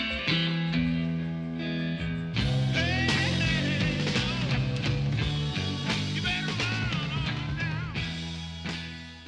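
A rock song plays loud and steady, with bending, slightly distorted electric guitar lines over a driving bass and drum groove, a fuller section kicking in after the first couple of seconds.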